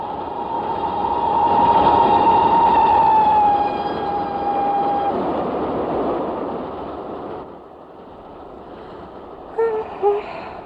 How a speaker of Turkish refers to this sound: Of, bu gürültülü tren sesinden uyuyabilirsem iyi.